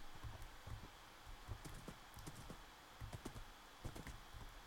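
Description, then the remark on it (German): In a video game, a horse's hooves clip-clop quickly in a steady galloping rhythm, crisp repeated thuds that are fairly loud, with a faint background hum and no one speaking. “Aber Pferde sind ultra schnell.”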